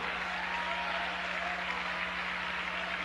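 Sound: audience applause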